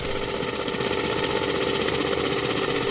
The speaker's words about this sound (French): Il y a aussi les bruits de bateaux qui sont très intenses qu'on va entendre.